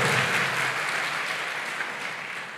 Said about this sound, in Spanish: Dele fuerte ese aplauso al Señor. Fuerte ese aplauso y coloquémonos en pie, por favor.